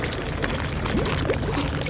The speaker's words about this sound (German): Was ist das? Der, der Fels bewegt sich. Oh, Wasser bricht in die Höhle.